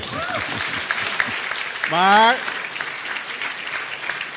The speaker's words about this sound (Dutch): ik vind dat het applaus iets te kort, iets te kort duurde. Eh, kunnen we dat nog een keer?